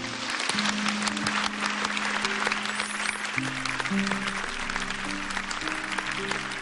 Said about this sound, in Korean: 그래서 아버지한테 다 괜찮다고 정말 다 괜찮다고 방송 빌어서 얘기해드리고 싶고 네, 위로의 박수를 좀 쳐드리고 싶다고.